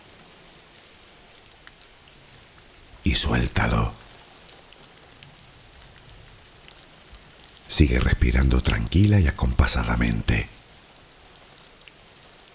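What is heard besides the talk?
rain falling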